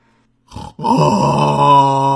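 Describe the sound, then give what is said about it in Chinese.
A voice imitates the lion-like roar of a piglet character holding a blue candy in its mouth: a short gruff grunt, a brief pause, then a loud, sustained, rasping growl held steady for over a second. “小猪发出了狮子一般的吼声。”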